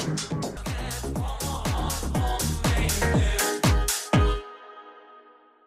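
An electronic dance track plays loudly with a steady, punchy kick drum and bright percussion over sustained synth tones, then cuts off abruptly, leaving a brief fading tail.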